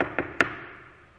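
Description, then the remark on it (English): Three quick knocks on a door, the last one sharpest, each leaving a short ringing tail. No voices, and the sound is moderately quiet. “So they had partaken of their bread and they were getting ready to drink their Coke when the door was rapped on.”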